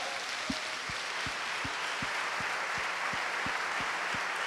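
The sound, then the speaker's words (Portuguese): An audience applauds the Lord in a steady, dense wash of clapping, with a regular rhythmic beat pulsing beneath it roughly every third of a second; no voices stand out. “Você pode terminar com um lindo aplauso ao Senhor?”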